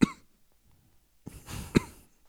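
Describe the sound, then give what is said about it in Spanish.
A voice imitates a man's chronic, tic-like spasmodic cough heard on a small bus: a sharp burst, a pause, then a raspy throaty rasp ending in another abrupt cough, fairly loud with no talking. “Una tos crónica. Cada, no, pero es que ni siquiera era tos, era como espasmo, pero era, era maniático.”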